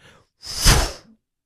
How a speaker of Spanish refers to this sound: Se han topado con gente que estornuda y nunca se tapa la boca. Según ellos, estornudan para un lado o, se estornudan así y se ve donde sale la nube.